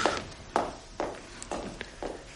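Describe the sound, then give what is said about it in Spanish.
Footsteps of an innkeeper walking away at a steady, unhurried pace to check whether the courtyard door is closed, five or six distinct heel strikes on a hard floor, fairly quiet and evenly spaced, with no voices. “el tabernero se fue a comprobar si la puerta del patio estaba cerrada.”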